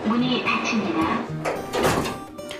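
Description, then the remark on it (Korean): An elevator door slides shut and lands with a single muffled thud near the middle, while voices murmur underneath throughout. “엘베 문은 금세 쿵 닫혔고 문이 닫히기 직전에 저는 사람들의 고된 숨참기 표정을 봐버렸죠.”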